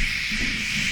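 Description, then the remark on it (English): A voice makes a steady, continuous "shh" hiss imitating background car noise, holding at an even, fairly loud level for about a second with no other sounds. “I can't be I can't be behind the car just like with the background noise just going shh”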